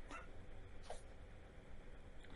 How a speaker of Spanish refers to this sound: Cállense, perros culiados.